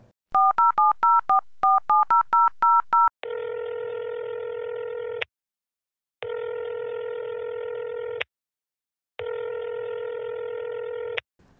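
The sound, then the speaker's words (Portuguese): A quick run of about ten touch-tone keypad beeps dialing a number for a call to someone in Bahia, followed by three long, steady ringing tones separated by short silences as the call connects. No voices are heard. “E para isso eu vou ligar para alguém que está na Bahia.”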